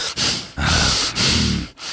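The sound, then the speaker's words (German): A person huffs out a series of loud, irritated snorts through the nose, about four forceful breathy exhales in quick succession, with no talking. “dass sich äh, eine Hörerin beschwert hat, dass ich äh, zu, zu viel schnaufe.”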